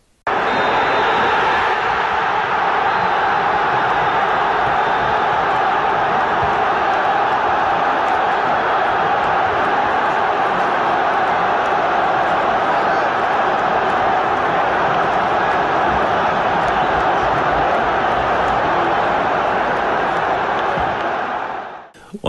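A stadium crowd roars loudly and steadily at the final whistle of a match won by Hertha BSC, a dense wall of cheering and shouting voices that holds for over twenty seconds before cutting off.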